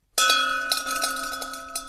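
A company's celebration bell at a space-industry supplier, rung when there is something to celebrate such as a new order, rings out with a bright, sustained metallic tone, struck repeatedly in quick succession so the strikes blend into a continuous ringing shimmer. No voices are heard.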